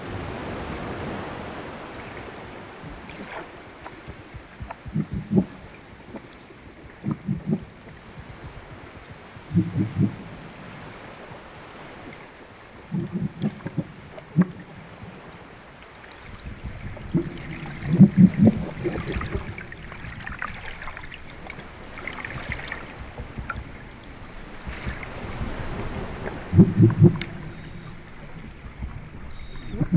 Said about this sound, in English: So, what we have here is a recording by musician David Delahaye, who was actually interviewed by Annabelle for episode 168 of the podcast. This recording is an underwater recording of some swimming seals.